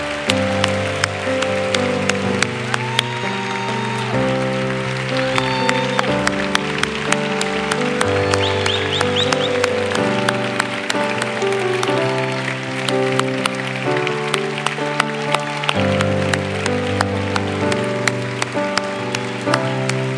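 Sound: audience applauding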